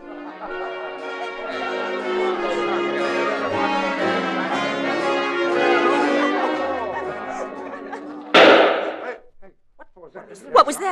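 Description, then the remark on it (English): Dance music plays steadily at a house dance party, then a single loud, sharp gunshot from the library cracks out and the music stops. Startled voices follow briefly. “I'm sure it was a shot. It came from the library.”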